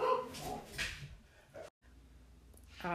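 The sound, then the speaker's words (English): Dogs bark in a few loud, rough bursts at a neighbor dropping off a bag of dog food, breaking off briefly into a near-silent pause before another sharp bark starts up at the end. “I thought my dogs were just being rude beasts, but actually, my neighbor was dropping off a bag of dog food and a whole other like apple bag.”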